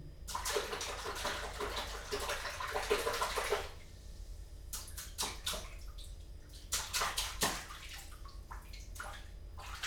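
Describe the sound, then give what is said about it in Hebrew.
Water sloshes and splashes in a bathtub as ducks paddle, a steady rush for a few seconds and then a series of separate splashes at an uneven rhythm. No one speaks. “רוצים לשמוע את שכשוך הברווזים?”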